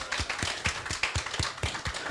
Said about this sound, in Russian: Встречайте, искупайте в овации.